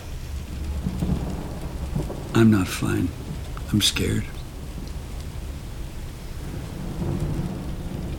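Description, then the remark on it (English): Steady rain hisses outside throughout while low thunder rumbles in the background, with a person speaking briefly over the storm in a shaky voice. “Still raining out there.”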